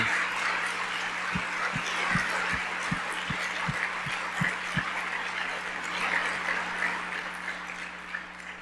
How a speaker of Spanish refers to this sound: Ah, si le vas a aplaudir, hazlo fuerte.